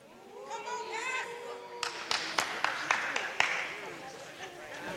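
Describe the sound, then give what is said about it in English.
An audience calls out amens, several voices overlapping, then a burst of scattered hand claps joins in, a handful of sharp irregular claps under the continuing calls before they fade. “You heard all them amens and them claps.”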